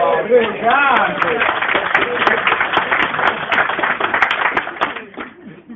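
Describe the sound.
An audience claps steadily for about five seconds, a dense crackle of many hands with cheering voices mixed in, then the applause thins and fades out near the end.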